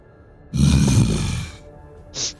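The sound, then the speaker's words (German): A single loud sneeze, a rough breathy burst lasting about a second, then a brief sharp hissing puff of air afterward. No one talks. “Gesundheit.”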